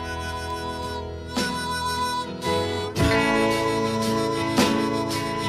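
Sustained reedy harmonica music plays alone, loud, with rich stacked tones and chord changes marked by fresh breathy attacks every second or so.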